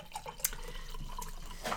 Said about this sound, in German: Das war die Wasserflasche.